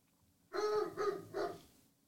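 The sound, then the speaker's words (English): A large German Shepherd dog barks three times downstairs in a quick series of deep, harmonic woofs, heard alone and somewhat muffled, with no talking. “Eric was absolutely my dog. My German Shepherd downstairs”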